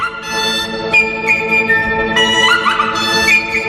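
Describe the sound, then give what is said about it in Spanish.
A Chinese oboe with a trumpet-like bell, a loud, strident instrument, plays loud sustained notes, then breaks into quick virtuoso trills and warbling slides imitating birds, played alone with no voices. “Es un instrumento muy virtuoso, veréis, ahora va a empezar a hacer virguerías, a empezar a imitar pájaros y a, se pica con la flauta.”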